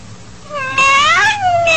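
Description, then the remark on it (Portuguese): A black female kitten being mistreated gives a loud, drawn-out meow, its high pitch rising and then sliding down, with a brief second cry starting at the very end. No one speaks. “Pobre gatinha bonita.”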